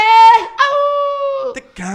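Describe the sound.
Someone imitates a dog with high, nasal whimpering whines, one drawn-out cry sliding downward, then a couple of short, sharp yips at the end. Fairly loud, with no other talk.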